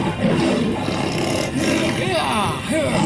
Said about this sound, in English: The lion started to roar loudly and tried to escape.